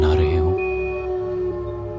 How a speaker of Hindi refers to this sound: बाहर इस ठंड में जो सन्नाटा पसरा हुआ था वो अकस्मात ही कुत्तों की रोने की आवाज शुरू होने से टूट गई वो इस कदर रो रहे थे मानो जैसे वो बिजली के जाने का मातम